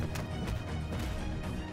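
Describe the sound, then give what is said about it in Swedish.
A punch lands on a face with a hard smack, then more heavy blows thud in an irregular flurry over a dense, continuous scuffle of brawling noise, loud, as a man fights creatures with punches and kicks. “Han träffar en av varelserna rätt på... Var det där hakan?”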